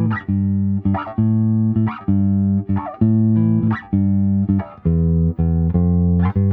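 A short instrumental music interlude with sustained, steady tones shifting between chords in a regular rhythm, plus brighter attack accents on each change; loud and continuous with no voices.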